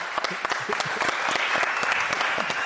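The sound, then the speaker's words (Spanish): A crowd applauds steadily, many hands clapping at once in a dense, sustained patter with sharp individual claps standing out, moderately loud throughout with no pause. “Ya, tuviste un aplauso.”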